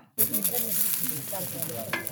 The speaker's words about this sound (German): Da brutzelt schon das Fett und du bist der äh, Wildschweinverantwortliche heute?